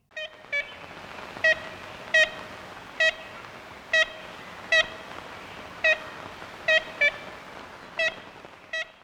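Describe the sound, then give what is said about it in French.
Ivory-billed woodpecker call: a series of about eleven short, nasal, toy-horn-like toots at a steady mid pitch, spaced irregularly over faint background hiss, with no talking. “Et voici la voix de l'oiseau à l'honneur aujourd'hui.”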